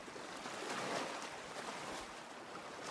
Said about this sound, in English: Hear the sound of rushing water cascading over mountain ridges or hear the trickling stream flowing through the valleys.